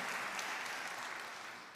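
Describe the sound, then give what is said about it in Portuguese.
An audience applauds the speaker's wife together, a dense, steady wash of many hands clapping that holds throughout and eases off slightly at the end, with no voices heard. “E agora eu peço uma salva de palmas para ela, para minha esposa, que foi mulher de fé e teve palavras para dizer que a coisa ia dar certo.”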